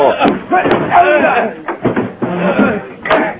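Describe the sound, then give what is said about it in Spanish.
The handle of a locked door leading to a hallway is jiggled and rattled in a few sharp bursts while voices talk over it almost the whole time; the door doesn't give. “Por fin llegó hasta la puerta que comunicaba con el pasillo, pero...”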